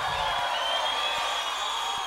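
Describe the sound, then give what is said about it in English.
A crowd cheers and whoops continuously at a steady, fairly loud level, a dense wash of voices with no single speaker standing out. “All right, you don't have to cheer that and ting.”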